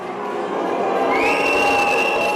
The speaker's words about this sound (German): Buhrufe und Pfiffe, vor allem wenn sich Bürgermeisterin